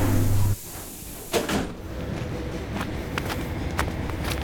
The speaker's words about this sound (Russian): И на очередной электричке приехала на очередную станцию. Следующая остановка 1136 километр. Осторожно, двери закрываются.